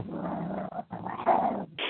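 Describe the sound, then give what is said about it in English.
A dog named Pookie growls outside in low, rumbling stretches broken by brief pauses, fairly loud, while its owner tries to get it in, with no one talking. “I'm just trying to get my dog in from outside at the minute.”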